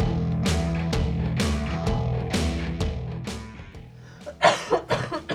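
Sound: coughing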